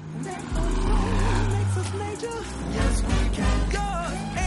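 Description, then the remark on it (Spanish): A police convoy rolls past, a patrol car leading a truck carrying an astronaut and another patrol car at the rear, with a steady, loud low engine rumble that swells after the first half-second, while voices sound over the droning traffic noise. “Un coche patrulla precede al camión que lleva a John Glenn. Otro coche patrulla cierra la comitiva.”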